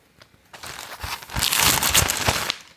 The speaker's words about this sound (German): Wenn du kurz rascheln könntest.